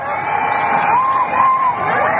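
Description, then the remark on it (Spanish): A large concert crowd at the Sala Canciller in Madrid on 28 November 1997 shouts and cheers continuously, calling for an encore, with a few rising whoops or calls standing out above the steady, loud roar. “Y llegamos con todos los gritos y las pasiones al momento bis, bises, bises.”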